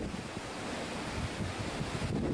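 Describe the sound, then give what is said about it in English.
Wind-driven waves churn and slosh on the Sea of Galilee during a windstorm, with a steady roar of gusting wind buffeting the microphone throughout, loud and continuous with no voices. “This is just kind of a common random windstorm across the Sea of Galilee.”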